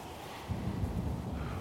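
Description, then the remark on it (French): A low rumble of thunder from an approaching storm swells in about halfway through, rolling on steadily beneath a windy hiss, with no voices present. “Voilà, on entend l'orage qui gronde et elle va lui poser la question je croyais que tu vérifié la météo.”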